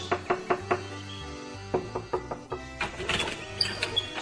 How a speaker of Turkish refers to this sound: Hatta üzgün biçimde bir gün orman ülkesinin sihirbazı olan yaşlı maymunun evine gelmiş, kapısını çalmış.